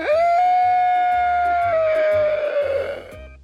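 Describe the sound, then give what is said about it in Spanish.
A man's loud, drawn-out wail holds one high, strained note, then slowly sags lower, over a steady thumping low beat. No words are spoken. “Ah, ahora, ¿por qué estás llorando?”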